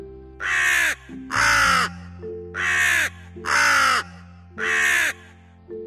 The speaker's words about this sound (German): Meint ihr, Rabe, ihr könntet ein wenig lauter sein? dann kann ich leichter eurem wunderbaren Gesang lauschen. Der Rabe richtete sich noch weiter auf und begann lauter nach Rabenart zu krächzen.